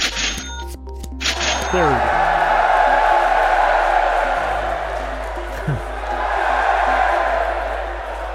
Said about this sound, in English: So added the cheering sound in there. Uh, says you win.